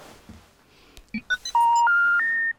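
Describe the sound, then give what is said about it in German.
A few quick keypad-like beeps, then three loud, steady electronic tones stepping upward in pitch, like a phone line signal with no one talking, as a woman phones her provider. “Sie ruft an”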